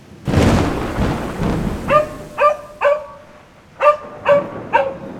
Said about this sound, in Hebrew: ברק הציף לרגע ממושך את כל החדר באור חזק. טניה שמה מהר את הכרית מעל הראש. אנדרי סתם את אוזניו, ורעם אדיר נשמע.